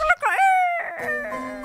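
A rooster crows once, a loud, close, drawn-out cry that rises sharply and then holds steady before other sounds and a voice take over.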